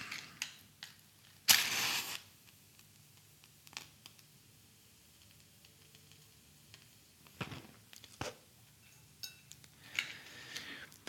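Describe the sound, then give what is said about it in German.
A single sharp, hissing match strike flares up briefly as a candle is lit, followed by faint clicks and small handling noises in otherwise quiet surroundings, with no talking. “Ich zünde eine Kerze an.”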